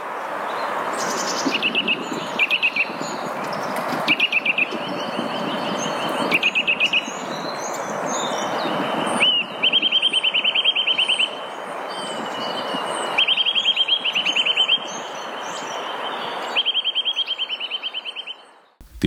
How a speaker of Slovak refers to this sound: A teraz si budeme môcť vypočuť to, ako taký brhlík znieje.